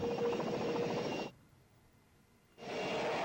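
A loud helicopter roars with a steady rotor chop, cuts off abruptly for about a second, then comes back just as loud. No voices are heard.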